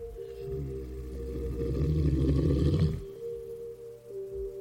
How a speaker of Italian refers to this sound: All'improvviso sento un ringhio.